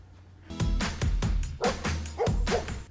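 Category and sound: animal, dog barking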